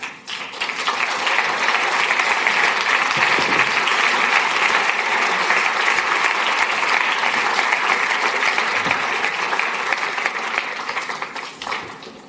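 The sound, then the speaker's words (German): An audience claps steadily for about twelve seconds to welcome a guest, a dense, even wash of applause that swells in quickly, holds at full strength, and tapers off near the end. “Ich möchte euch bitten, dass ihr sie einfach mit einem Applaus begrüßt.”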